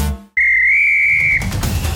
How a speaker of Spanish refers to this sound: ha sonado el pitazo final de este podcast.